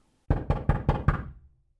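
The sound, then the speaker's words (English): Five firm knocks on a wooden door in a quick, even rhythm, solid, with a short resonant ring fading after the last one. “So, what is the significance of that knock?”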